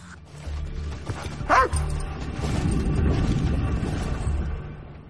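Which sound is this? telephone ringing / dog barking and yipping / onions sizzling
dog barking and yipping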